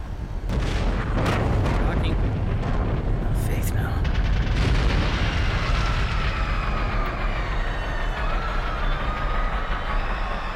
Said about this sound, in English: There's been an explosion. I thought I saw a rocket. So- something went into one of the four anti grav fans.